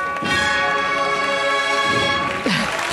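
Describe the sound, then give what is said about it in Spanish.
Church bells ring steadily with rich, lingering tones that sustain throughout, while faint crowd voices murmur underneath. “Vaya al final moviéndose a los sones de esas campanas.”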